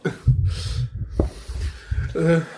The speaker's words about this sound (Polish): Tak, to był mruczący kot.